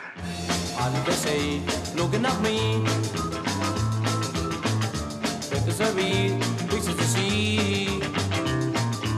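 A full 1960s pop band plays an upbeat, vintage-sounding pop tune with steady bass, drums and guitars, loud and continuous throughout, with no voices speaking over it.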